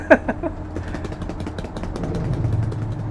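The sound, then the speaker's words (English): A voice imitates a small motorcycle engine as a drum roll, a buzzing, rattling trill. It opens with a sharp burst, then holds a steady, pulsing drone that swells slightly louder toward the end. “there was that, like a little motorcycle. That was a motorcycle drum roll.”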